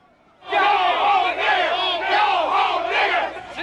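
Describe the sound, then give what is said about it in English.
A crowd of counter-protesters in Forsyth County chants and yells together loudly. Their massed voices rise and fall in rough rhythmic waves from the start and continue throughout. “11 Alive News was on location that day, capturing the sights and sounds of the counter protesters.”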